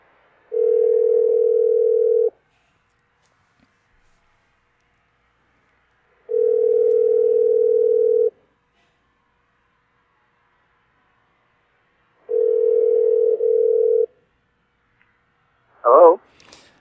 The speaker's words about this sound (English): So, let's see if he answers the phone.